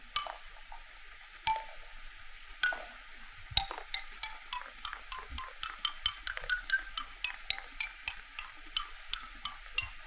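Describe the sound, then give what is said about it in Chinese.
Hard, bright taps on a wooden xylophone playing the music of an advertisement, a quick run of dry clicky notes in an uneven, tumbling rhythm, some ringing higher than others, with no voices. “那要讲它这个广告超酷的，刚刚听到的声音比较哒哒哒、硬硬的声音，它其实是木琴打出来的声音。”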